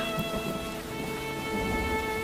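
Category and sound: nature, rain falling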